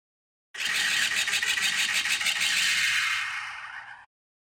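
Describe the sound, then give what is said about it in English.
A loud Star Wars sound effect of a spaceship's laser turret guns firing, starting as a rapid burst of stuttering blasts that blur into a harsh, roaring hiss for a few seconds before cutting off. No voices. “You're correct that it is a gun, but you got the wrong ship.”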